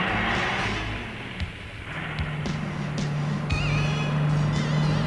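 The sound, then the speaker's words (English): A truck engine rumbles steadily with a low, droning hum, joined by occasional clanks and rattles, as Crosby and Stephanie drive away in it. The sound stays fairly loud throughout, with no voices. “Sadly, Crosby and Stephanie drive away.”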